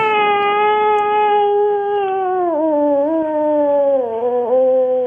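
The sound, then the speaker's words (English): On the Ron and Fez show, a man imitates a cat's meow in one long, loud, drawn-out wail that lasts about five seconds. Its pitch wavers and dips slightly toward the end, with no other talking. “Why is he meowing now?”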